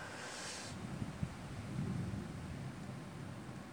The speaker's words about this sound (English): Hear that? Thunders. There's gonna be a storm tonight, baby. There's gonna be a fucking storm.